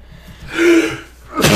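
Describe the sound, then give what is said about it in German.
A single sneeze: a drawn-out, breathy voiced intake builds for a moment, then breaks into a sharp, explosive burst of air at the end. “Gesundheit.”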